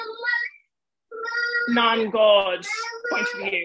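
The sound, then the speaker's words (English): A baby fusses and babbles, with high, wavering cries and bursts of vocalizing overlapping an adult who keeps talking, after a short pause. “Sorry about the baby.”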